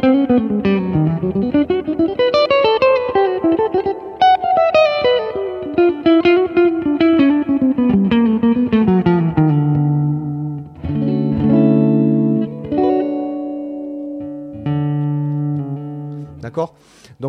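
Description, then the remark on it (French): A distorted electric guitar plays a smooth legato run, notes gliding quickly into one another, then settles into several loud, sustained held notes with brief gaps between them. Continuous. “Et, et c'est vrai que j'ai tendance à beaucoup, beaucoup jouer comme ça. Et c'est un choix, en fait, hein, parce que j'aime le son lié, ça me permet d'accentuer.”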